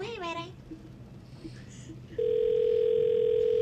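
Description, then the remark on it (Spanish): A high voice speaks briefly, then after a short pause a loud, steady telephone ringing tone starts and holds unbroken at one mid pitch until the end; the call goes unanswered. “Después del tono, No lo cogió.”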